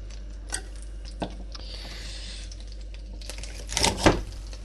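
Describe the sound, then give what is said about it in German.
A knife halves asparagus stalks on a cutting board: two separate sharp knocks, then a quick cluster of louder cuts near the end, over a low steady hum. “Ich schneide den, halbiere den aber.”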